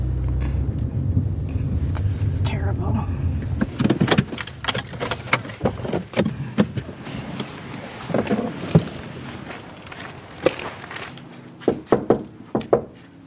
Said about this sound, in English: While I was knocking on the door